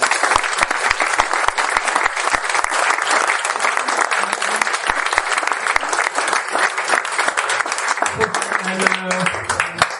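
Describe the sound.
An audience applauds steadily for about ten seconds, a dense wash of many hands clapping at close range, with a few faint voices and murmurs surfacing near the end.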